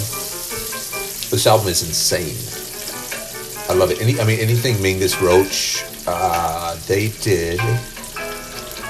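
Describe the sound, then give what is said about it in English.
Meatballs sizzle and crackle steadily in a hot pan, a continuous hiss running beneath a man who talks casually over it. “I can't uh, pick up the phone because I'm cooking meatballs.”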